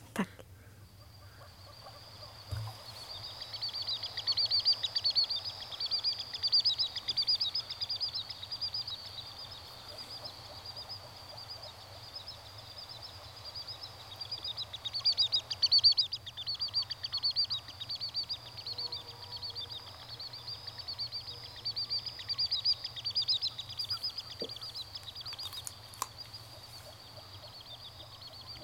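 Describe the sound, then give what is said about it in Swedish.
A displaying common sandpiper sings: long runs of high, thin, rapidly repeated trilling notes that rise and fall in bursts for about half a minute, over a low, steady background murmur, with some frogs in the background. “Ja, spelande delsnäppa.”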